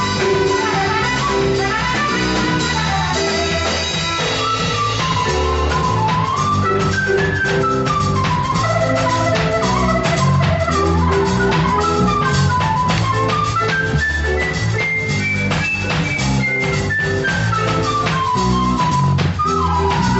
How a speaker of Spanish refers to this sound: escuchando es jazz amazónico, hecho desde Loreto.